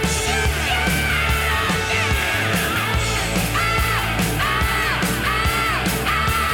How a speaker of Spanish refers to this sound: Ese es el grito la emoción que tenéis que tener en ese momento para mandarte esos gritos es, importante.